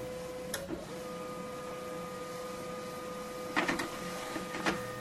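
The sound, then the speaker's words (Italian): A printer runs steadily with a constant mechanical whine and hum, broken by a few short crackling, rattling bursts as the paper feeds through. No one speaks. “La stampante spargeva i soliti rumori dal crepitio burocratico.”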